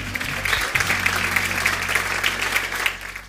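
Steady applause from a group, dense rapid clapping sustained at moderate loudness throughout, with a low hum underneath and no voices.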